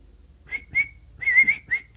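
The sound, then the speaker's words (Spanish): A person whistles a canary-like birdsong in four short trilling bursts, high and bright, with a longer warbling phrase in the middle; no talking. “Allí va con su canario. ¿Para dónde, pajarito?”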